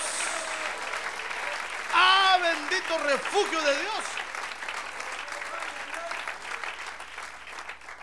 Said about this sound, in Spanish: Démosle un buen aplauso al Señor ahora. Gloria a Dios.